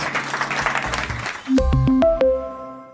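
An audience at a tech industry event applauds two panel speakers, the applause crackling steadily for a second and a half, then giving way to a short musical sting of bright sustained tones stepping between a few pitches.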